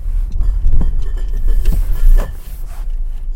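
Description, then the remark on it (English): A car pulls into a parking spot at home, its engine a steady low rumble, with a few soft knocks and creaks as it rolls slowly to a stop. No one speaks. “One moment as I pull in here.”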